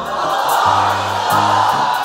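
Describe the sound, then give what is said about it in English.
A large crowd shouts "the Lord is good" loudly together, as loud as they can, in one sustained, roaring burst lasting about two seconds, with low steady musical notes shifting underneath. “Turn to somebody before you're dismissed and say it as loud as you can for the Lord is good.”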